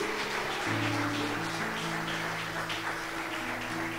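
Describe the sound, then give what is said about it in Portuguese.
A crowd applauds the Lord during a sermon at night with steady, dense, crackling clapping that holds for several seconds, while sustained keyboard chords play underneath. “E você fica de pé nessa noite e receba com um aplauso ao Senhor essa palavra e declara: essa palavra é para mim.”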